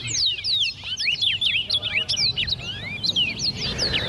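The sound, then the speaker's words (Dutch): Lively bird chirping fills the whole stretch, quick high tweets overlapping one another as if several birds call at once, fairly loud over a low background rumble, as the birds eat and drink. “Nou, de vogel gaat gewoon lekker met je eten en drinken.”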